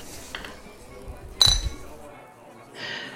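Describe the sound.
Two glasses of rum clink together once in a toast, a bright, short ring, with faint murmuring voices and a soft hiss of room noise around it.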